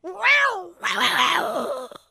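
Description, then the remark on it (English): A person imitates a cat with a short rising-falling meow-like cry, then a longer, rough, growling yowl as their best kitty cat growl, both fairly loud with no other sounds. “Give me a give me your uh, your best kitty cat growl.”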